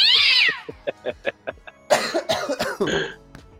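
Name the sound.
coughing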